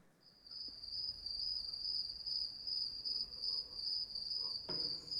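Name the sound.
crickets chirping at night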